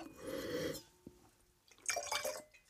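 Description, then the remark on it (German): Wine, a 2021 Chablis from Burgundy, splashes and trickles into a glass in two bursts, a bright liquid pour followed by a short clink and then a second gurgling pour with high, glassy ringing tones. “Ein bisschen Vino. Der Wein der Woche. Schenk ein.”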